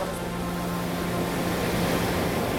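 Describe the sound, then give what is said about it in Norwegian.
A steady, full roar of rushing waterfall water, loud, holding constant throughout with no voices or other sounds breaking through. “Og så må du få med Alta Foss og sånn, da.”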